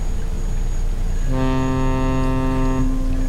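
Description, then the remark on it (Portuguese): A ferry horn sounds one long, steady, deep blast of about a second and a half, loud, over a constant rumble of engine and water noise, signaling that the ferry ride is coming to an end. “Oh, esse som significa que o nosso passeio de barca está chegando ao fim.”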